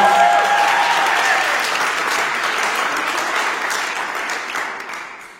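Audience applause, a dense steady wash of many hands clapping together, loud at first and slowly tapering off toward the end, with a faint tone briefly audible at the start.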